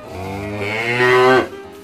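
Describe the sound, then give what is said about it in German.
A single long, loud moo from Heike, a tame cow on a farm, droning steadily and swelling slightly before cutting off, with no talking. “Also die Kuh Heike ist eine ganz handsame Kuh und äh, jeder auf dem Hof liebt Heike.”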